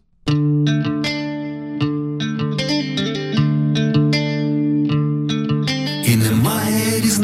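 A band's song starts abruptly with effects-laden, distorted guitar chords ringing over a steady low drone, then drums and cymbals crash in near the end as the full band kicks in loudly.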